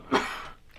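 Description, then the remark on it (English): A single sneeze: a sharp, breathy burst that fades into a short hissing exhale, fairly soft overall, with no talking around it. “And uh, bless you, dog. Thanks. Gesundheit.”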